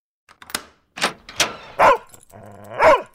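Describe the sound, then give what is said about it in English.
A dog barks at its owner arriving home, not recognizing them, five times in quick, uneven succession, sharp, each bark loud and slightly strained, with brief silences between and no voices. “That time you got home from a week of double shifts? and your dog didn't recognize you.”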